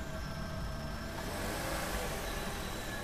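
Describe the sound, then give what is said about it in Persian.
A car engine rumbles, a steady low drone with no change in pace, as the car is driven slowly into the courtyard of a house. No voices are heard. “ماشین آورد تو حیات در خونه و بستیم”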